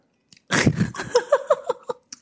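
A crisp bite into a crunchy Finnish stick cookie, followed by a few quick crackling chews over about two seconds, with no talking.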